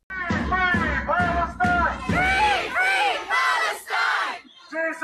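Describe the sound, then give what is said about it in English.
A crowd at Yorkdale Mall jeers and shouts at families visiting Santa Claus, in loud bursts, many voices yelling together in a rough chant-like rhythm, about six or seven surges with short breaks between them. “They're with their kids trying to sit on Santa's knee, and you can hear the jeers and, and the shouting of the crowd.”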